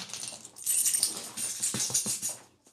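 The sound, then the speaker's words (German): A bunch of keys jangles and clinks continuously for a few seconds, a bright metallic rattle, with no one talking. “Und dann hat er immer mit dem, mit dem Schlüssel so geklappert, von Weitem schon.”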